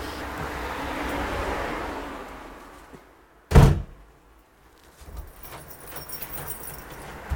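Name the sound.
keys jangling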